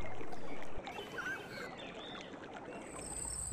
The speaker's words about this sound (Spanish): ¿Reconoce este sonido? Actualmente hay muchos sitios en internet que ofrecen sonidos o audios para dormir bien. Puede ser un río corriendo